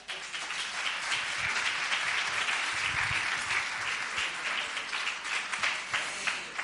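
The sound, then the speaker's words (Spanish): An audience in Nerja applauds steadily for the speaker's mother, who is among the audience, a dense wash of many hands clapping at an even level for several seconds with no voices over it. “Y les pido para ella un aplauso porque”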